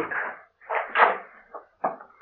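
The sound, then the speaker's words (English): A key scrapes and turns in a lock, then a door creaks open, a few short clattering, rustling bursts in quick succession with no talking. “stand by the door until I light the lamp”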